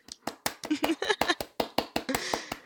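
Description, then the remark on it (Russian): A small group claps their hands in brief applause: a quick run of sharp, crisp claps at a steady, fairly even pace, with faint voices mixed in beneath. “Давайте похлопаем, пожалуйста.”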